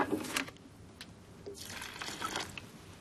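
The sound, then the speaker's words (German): Water splashes and gurgles into a thick cement mix, a small batch of concrete being made, with wet sloshing bursts and a longer pouring stretch, fairly quiet, with no talking. “und aus Zement wird Beton. Naja, das, was ich hier im Kleinen veranstalte, ist weltweit ein Riesending.”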